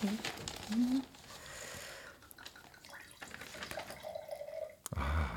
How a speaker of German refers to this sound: kannst du den Wein vielleicht auch ins Wasserglas schütten.